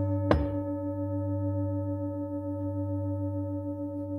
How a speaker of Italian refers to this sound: Come mai io posso sentire il suono di questa campana adesso? Guardando così dici ok perché niente, hai preso il batacchio, hai toccato la campana, è fatto di un certo materiale